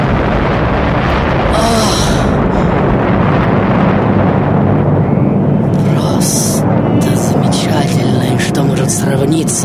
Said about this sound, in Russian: И вот в определенный момент по совершенно неизвестной нам причине происходит чудовищный взрыв